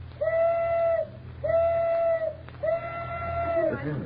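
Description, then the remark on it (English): The tugboat Elsie's whistle blows three steady, evenly spaced blasts, each about a second long with a bright, reedy tone, over a low background rumble, on a crowded, noisy waterfront at five minutes to twelve, signalling she is ready for Houdini's experiment. “at five minutes to twelve on the crowded and noisy waterfront, the tugboat Elsie whistled that she was ready for her part of the experiment.”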